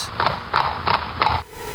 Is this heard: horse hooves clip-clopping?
yes